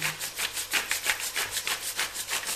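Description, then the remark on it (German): A pepper mill grinds pepper over food to season it, in a fast, steady series of raspy crunching twists, about a dozen even strokes with no voices, the gritty scraping clear. “Hörst du auch, ich, ich, ich mache hier richtig ein, ein Pfeffermassaker rein.”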